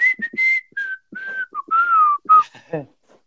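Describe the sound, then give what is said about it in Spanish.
A person whistles a short, bright ringtone-like melody of quick, clear notes that step up and down in pitch, with a few soft breathy sounds between phrases and no talking. “comprabas los ringtones. Y yo compré el de Robin Hood, el de...”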